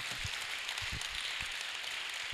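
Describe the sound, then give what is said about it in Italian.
An audience applauds: a dense, steady wash of many hands clapping, sustained at an even level for the whole moment, with a few dull low thumps mixed in and no voices. “Un applauso.”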